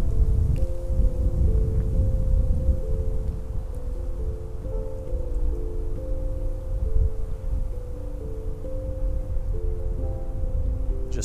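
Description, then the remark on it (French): Wind moves steadily through the leaves and branches of a tree on a sunny day, a continuous soft rushing with a low rumble and a faint steady hum underneath. No one speaks. “Je t'invite à entendre le vent qui berce les feuilles et les branches de l'arbre sous lequel je suis assis en ce moment.”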